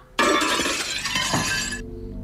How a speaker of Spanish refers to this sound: se asusta y se le caen los platos al piso